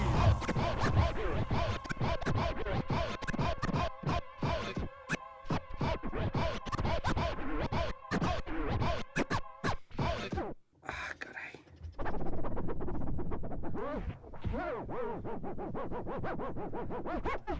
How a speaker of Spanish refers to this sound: sobre esos scratches de … regresamos aquí a Tracción